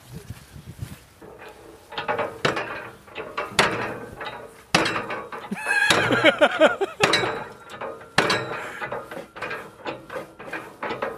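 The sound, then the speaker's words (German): A hand water pump is worked in a run of repeated strokes, each with a creaky metallic squeak and clunk, fairly loud, with no talking. “Vielleicht, wenn du nur doll genug dran pumpst.”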